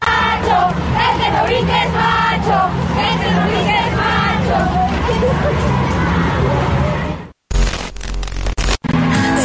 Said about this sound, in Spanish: las invito también a que a continuación escuchen un poquito de lo que se vivió en la marcha.